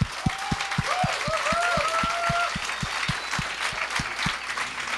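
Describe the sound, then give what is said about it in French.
An audience breaks into steady applause welcoming two guests, dense clapping filling the whole stretch with a few louder rhythmic claps standing out, while some cheers and whoops rise briefly above it. “Fait que, euh, mesdames et messieurs, une bonne main d'applaudissements.”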